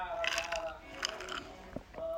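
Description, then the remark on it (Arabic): Someone sips a large iced black coffee from Dunkin', with a few short slurping noises and small rattling clicks, like ice shifting in a cup, over a faint, steady tonal hum in the background. “أخذت رشفة منها ما علينا آه قاعدة أشرب آيس بلاك كوفي”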